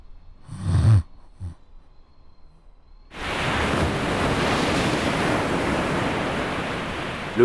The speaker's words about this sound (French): bruit d'une lame se fracassant sur le phare avait réveillé Loïc